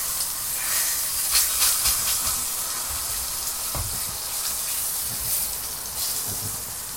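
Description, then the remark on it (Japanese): Steady sizzling of green peppers browning in a frying pan as they are cooked and eaten, a continuous bright hiss with scattered crackles and pops, playing alone without any talking. “なんか今、あぐらかいて、こう焼きながら食ってんだけど”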